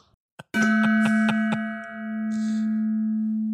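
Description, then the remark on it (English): A resonant metallic gong is struck about five times in quick succession, then left to ring out in a long, steady humming tone. It is loud, with no voices. “On top of a hill in a faraway land, a gong sounded.”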